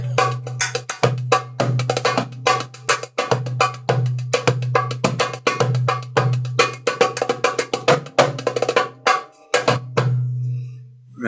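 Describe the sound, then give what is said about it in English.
A solid copper Egyptian North African style hand drum, used for belly dancing music, played in a fast, steady rhythm, with bright metallic slaps ringing over a deep, sustained bass tone. No talking. “Yeah, this is a, a, a solid copper uh, and it's an Egyptian North African style drum.”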